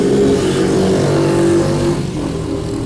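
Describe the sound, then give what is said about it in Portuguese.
A motorcycle engine drones loudly, a steady rumbling hum with harmonic tones that eases off slightly toward the end as it moves past. No voices. “Assim também, olha o barulho da moto.”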